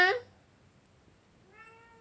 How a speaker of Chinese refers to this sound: 小猫不知道在干嘛，在外面一直喵喵叫，但是不进来。